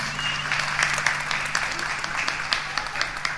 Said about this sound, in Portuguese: É, enquanto a gente tira a foto, vocês podem aplaudir ela mais uma vez.